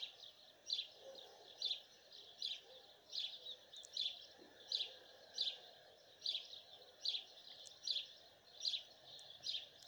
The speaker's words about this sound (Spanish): Respire profundamente. Disfrute de los cantos de los pájaros.